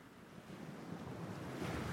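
Steady sea waves wash and rumble continuously, a broad surf roar that swells slightly toward the end, with some wind noise mixed in and no voices.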